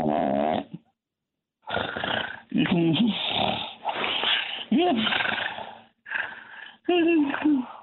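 Loud, rasping snores from a caller in Brooklyn come through a thin, band-limited telephone line, about six drawn-out snorts in an uneven rhythm separated by brief pauses.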